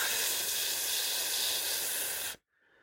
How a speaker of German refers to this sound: Und das, das kleine blonde Mädchen sitzt in einem dunklen Raum vor einem Fernseher, in dem läuft Grieß und man hört auch das Rauschen des Fernsehers.